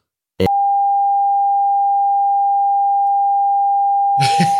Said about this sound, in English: I'll delete this. I'll bleep it out.